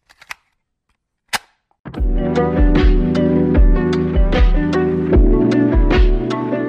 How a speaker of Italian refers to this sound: Sigla!